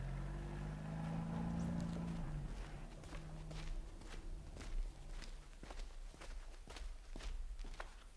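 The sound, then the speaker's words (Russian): Quiet, steady footsteps of several people on an operation walking outdoors on foot in silence at an even pace, following a low engine rumble that fades out in the first seconds. No voices. “Машину убрать, дальше пешком – соблюдать абсолютную тишину.”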